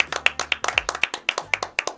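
A small group claps together in a brisk, steady round of applause, sharp hand claps close by and fairly loud, with no talking over them.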